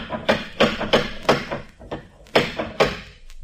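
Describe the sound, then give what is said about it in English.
Loud, heavy knocking on a door: a run of about eight forceful raps in uneven bursts, resonant, with a short pause before the final few thuds. No voices. “You could have heard that last knock out of the Farallones.”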